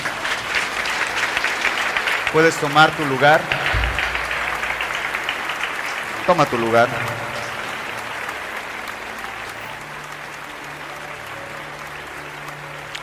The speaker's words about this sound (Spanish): Y sin decir amén, dale un fuerte aplauso al Señor.